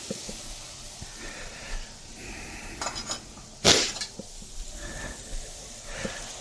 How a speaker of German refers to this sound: So, Soße umrühren.